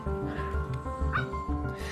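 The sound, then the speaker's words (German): Dachshund puppies yip and whimper, several high, squeaky voices overlapping in a steady, continuous chorus with short rhythmic bursts and no talking. “Ja, schon jetzt werden die Welpen zu Familienhunden erzogen.”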